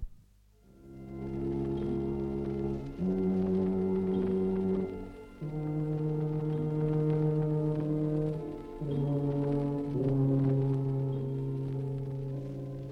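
tuba playing low notes

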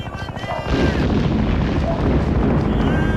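explosion

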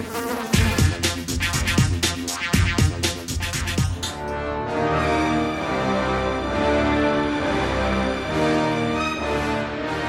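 housefly buzzing

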